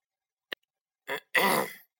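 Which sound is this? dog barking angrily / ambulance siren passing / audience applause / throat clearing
throat clearing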